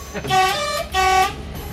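A train horn on the Mühlkreisbahn line sounds two loud blasts in quick succession as a signal at an unguarded level crossing, each lasting about half a second, with a brief gap between them and faint background rumble.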